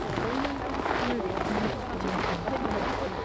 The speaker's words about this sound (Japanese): 大勢がこうやって歩いている感じの音を足音がそう気持ちいい